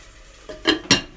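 A utensil scrapes and clinks against a pot while curry is being cooked and stirred, with two louder metallic knocks close together. No one is talking.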